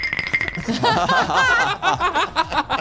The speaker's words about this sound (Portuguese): Como que faz o barulho do gelo,